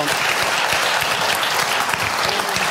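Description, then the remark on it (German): Steady audience applause, many hands clapping in a dense, even patter that stays loud and constant throughout with no pauses. “da möchte ich, da möchte ich jetzt, da möchte ich jetzt das Publikum, das applaudiert hat, daran erinnern, dass die Grünen uns regelmäßig Klimawandelleugner nennen.”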